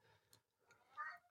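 A single short cat meow rises near the end, a brief tonal cry standing out over quiet, murmuring background sound.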